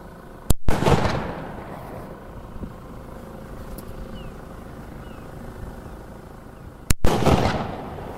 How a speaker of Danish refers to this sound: hun tager bøssen til skulderen og fyrer et par bønder af op mod, mod mågeflokken her. Som sagt, altså bare sort krudt. Så øh, nu lyder der lige et par brag.